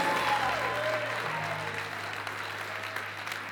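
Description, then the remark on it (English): A crowd claps steadily throughout for the Lord during a sermon, a dense wash of applause, with a low sustained organ-like tone humming underneath and faint voices mixed in. “Give the Lord a hand.”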